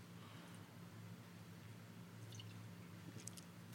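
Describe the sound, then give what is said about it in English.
A person takes a quick sip of a drink during a drink break: a few soft, wet slurping and mouth clicks over a low steady hum, quiet, with no talking. “He had to take a, had to drink take a drink break. Yeah, take a, take a quick sip.”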